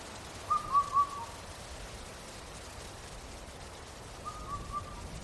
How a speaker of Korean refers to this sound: 검은 등 뻐꾸기 울음소리가 멀어져 갔다.